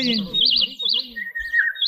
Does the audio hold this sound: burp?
no